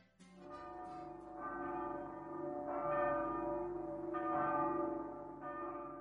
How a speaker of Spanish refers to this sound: año en el que fueron estrenadas sus tres campanas de bronce